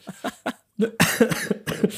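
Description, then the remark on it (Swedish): Someone coughs repeatedly: three short, dry coughs in quick succession, then a louder, harsher run of coughing fits, with no talking in between. “Vänta, du hostar fortfarande.”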